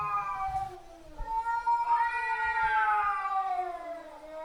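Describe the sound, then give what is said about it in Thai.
Male cats face off, trading drawn-out threatening yowls and hisses, long wavering cries that rise and fall in pitch and overlap, each warning the other not to come closer, with no one talking. “เสียงขู่ที่ได้ยินนี้นะคะ เป็นเสียงของแมวตัวผู้ ที่เผชิญหน้ากันค่ะ ต่างฝ่ายต่างขู่ซึ่งกันและกันว่าเอ้ย อย่าเข้ามานะ อย่าเข้ามานะ จะกัดแล้วนะ จะกัดแล้วนะ”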